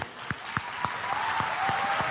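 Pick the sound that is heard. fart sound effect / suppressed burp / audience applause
audience applause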